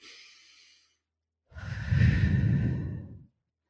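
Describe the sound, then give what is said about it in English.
A person deliberately takes a slow, deep breath drawn in softly, then after a short pause a fuller, louder exhale like a long sigh, with no talking. “so when you breathe slowly that actually slows down your heart rate um, if you take deep breaths you know i'll do it right now and you'll hear a difference”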